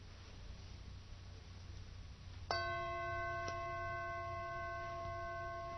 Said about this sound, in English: You hear the bell. Of course, by now I'm sure you can hear that the sound of the bell is not one sound. It's not one thing. It's not something continuous. It's many, many, many, many arisings and passings within the interval of one sound.